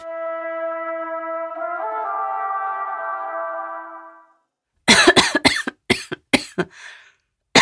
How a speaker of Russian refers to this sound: И вот я сижу, вроде разговариваю в нос, кашляю